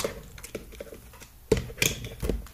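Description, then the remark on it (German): Quiet, irregular clicks of keys being pressed on a Windows computer keyboard used to operate an iPhone, a few sharper taps standing out among softer ones, with no talking. “Der Computer setzt zwar an, aber ich kann euch mal zeigen, wie das ist, wenn man mit einer Windows-Tastatur ähm,”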